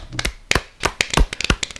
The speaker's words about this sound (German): Richtiger, richtig trauriger Zwei-Leute-Applaus.